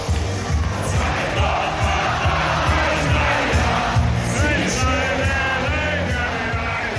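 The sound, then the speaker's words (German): A packed, boisterous crowd in a beer tent bellows along to a thumping band, voices merging into a loud, continuous drunken singalong with occasional yells rising over the steady beat. “die Kapelle spielt wieder … und du hebst die Hände in die Luft und grölst laut mit”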